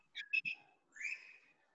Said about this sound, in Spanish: Perdón si se escucha mi loro, güey. No, no importa. Espero que se calle o no se escucha. No, sí se escucha un poco. Puta, ahorita lo voy a callar.